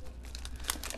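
A Cheez-Its cracker packet from a Lunchables Uploaded lunch combination crinkles as it is opened, with a quick run of crackly plastic rustles and one sharper crunch of the wrapper near the middle. No voices.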